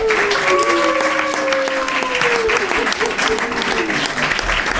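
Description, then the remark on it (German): A steady wash of audience applause at a quiz night for the team with 85 points fills the whole stretch, dense clapping at an even level, with a few voices calling or talking faintly beneath it. “Und jetzt ein warmer Applaus für 85 Punkte.”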